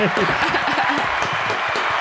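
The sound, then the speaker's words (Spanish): A burst of steady applause, a dense crackle of many hands clapping at moderate loudness, with voices talking and laughing underneath throughout. “Un aplauso, por favor.”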